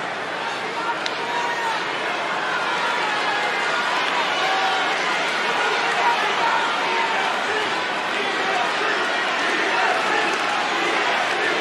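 A large New York crowd boos steadily, a dense, sustained roar of many voices that holds at an even, loud level without pause or clear peaks.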